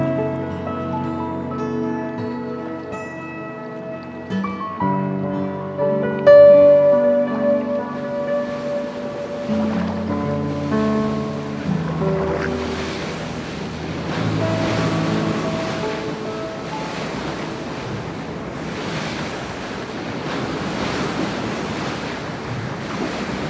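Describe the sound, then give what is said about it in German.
Soft sustained music gives way to a steady rush of wind and rolling sea waves at the bow of a large sailing ship, swelling and ebbing in broad surges, with no one talking. “Der Wind streift sanft mein Gesicht und meinen Körper.”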